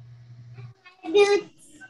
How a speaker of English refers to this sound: You can hear the little guy over here getting upset, like can't go out in rain boots.